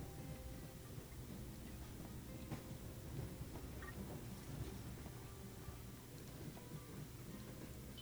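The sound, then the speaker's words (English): A train rumbles steadily along the tracks, a continuous low, fairly quiet roar with faint, occasional clicks and knocks scattered through it. No voices are heard. “The train has its own unique rhythm along the tracks.”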